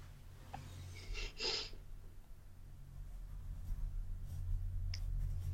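Faint scratching of a pen on paper comes in a few short strokes during a quiz game, with a brief tap near the end, over a steady low hum and no talking.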